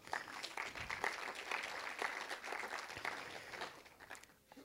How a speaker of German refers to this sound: und auch dafür könnt ihr Gott nochmal einen Applaus geben.